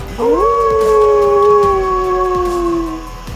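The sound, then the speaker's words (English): A single long wolf howl rises quickly in pitch, then holds a steady, slightly falling tone for about three seconds before fading. It is loud, with no voices. “And Svendin howls back.”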